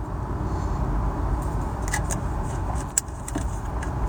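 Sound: car driving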